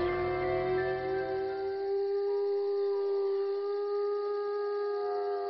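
wolves howling

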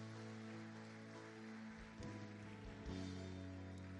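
audience applauding

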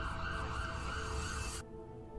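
ambulance sirens

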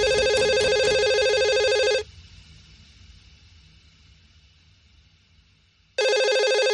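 telephone ringing

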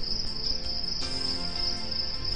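cricket chirping

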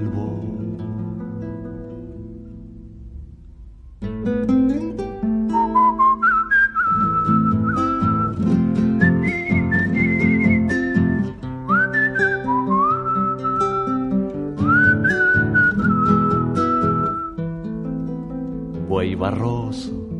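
whistling a tune

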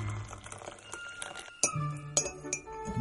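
clinking

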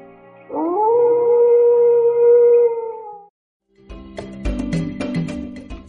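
wolf howling

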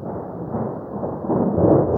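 thunder

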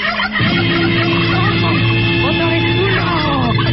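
turkey gobbling

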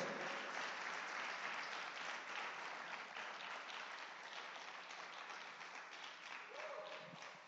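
applause

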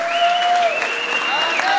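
audience clapping

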